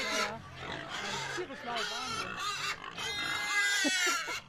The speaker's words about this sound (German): Mehrere Ferkel scharren sich um die Muttersau und saugen an ihren Zitzen.